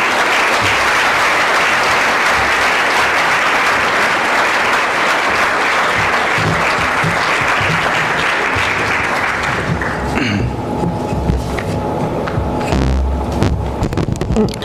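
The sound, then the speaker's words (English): Loud, sustained applause from a large audience welcoming the Foreign Minister of India, a dense wash of clapping that carries on for about ten seconds before thinning out into scattered claps and low murmuring. “So I ask you all to be enthusiastic with your applause, and please welcome the Foreign Minister of India.”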